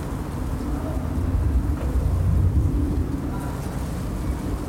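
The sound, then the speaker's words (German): Wind buffets the microphone capsule continuously in a garden on a late-summer evening, producing a heavy low rumble with irregular surging gusts, loud, with no other distinct sounds standing out. “Der Wind überschlägt sich in der Mikrofonkapsel.”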